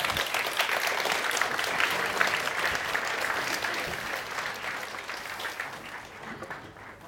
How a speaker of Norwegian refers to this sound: Så koselig med applaus.